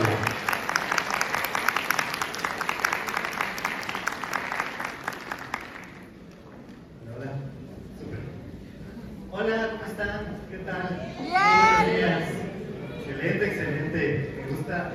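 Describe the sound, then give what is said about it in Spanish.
An audience claps loudly for about six seconds to welcome a speaker presenting a talk titled Actúa con propósitos, a dense burst of applause that then fades out, followed by a single voice beginning to speak. “¡Un aplauso, por favor.”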